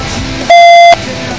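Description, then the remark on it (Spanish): A single loud electronic beep, a steady pitched tone lasting under half a second, cutting in over a low background hiss on the line before fading back to that hiss. “después de unos pitidos infernales, no sé si tenemos al otro lado a Felipe Gulselo.”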